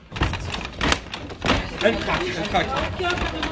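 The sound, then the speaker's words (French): Elected officials jostle and shove in a rugby-like scrum, trying to force doors open, with repeated heavy thuds and rattling bangs amid overlapping shouting voices, chaotic. “S'en suivra quelques minutes supplémentaires complètement lunaires où des élus entament une véritable mêlée de rugby en tentant de faire céder les portes.”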